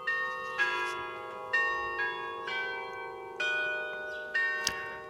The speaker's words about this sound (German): Besondere Musik mit dem Hubert Schäpper. Seit 50 Jahren ist er der Glockenspieler von Aarau, dem Mann also, der den Obertorturm zu Aarau zum Klingen bringt.